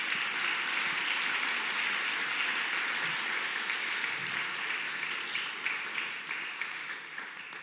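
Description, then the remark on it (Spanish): A large crowd applauds steadily for several seconds for Jesus during a sermon, a dense wash of many hands clapping together that holds fairly even and only begins to thin slightly toward the end. “Así es que dale una ovación a nuestro precioso Jesús.”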